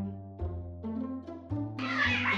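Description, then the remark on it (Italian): A frightened pet cat meows in a few drawn-out, wavering cries, ending in a harsh, breathy hiss-like burst, while its owner tries on costumes in a costume shop; no one speaks. “No, questo è della misura giusta, però il mio gatto ha paura.”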